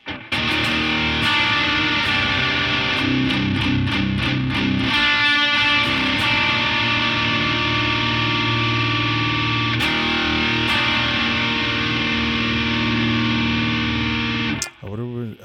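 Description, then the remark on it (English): Overdriven electric guitar through a screamer overdrive pedal with a boost pedal stacked in front, playing thick, sustained distorted chords with some rhythmic strummed attacks early on, loud and continuous before cutting off abruptly near the end. “So our screamer with the boost.”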